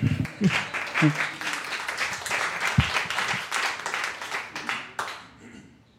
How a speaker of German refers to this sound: Applaus, Applaus.